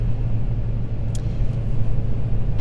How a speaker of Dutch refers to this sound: En ik zie dat ik ondertussen, ik ben aan het rijden zoals je misschien hoort, naar rechts moet.